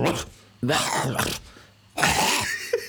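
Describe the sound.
A person does a raspy, strained vocal impression of a rooster that crows on their roof every morning, in two hoarse bursts, the second ending in a short hacking sound, with brief quiet talk between them.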